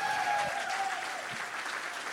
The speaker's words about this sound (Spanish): Come on, give the Lord a hand clap. Dale un aplauso fuerte a Jesús.